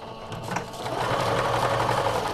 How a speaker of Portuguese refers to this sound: Uma máquina de costura é neste quarto transformado em ateliê